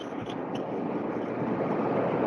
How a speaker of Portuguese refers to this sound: esse barulho que vocês estão ouvindo não é do vento, é do ar-condicionado aqui do meu trabalho. Ele é um ar-condicionado desse velho e grandão. Ora? Aí uhum. ele é uhum. bem barulhento. É sério, o que vocês estão ouvindo é ar-condicionado.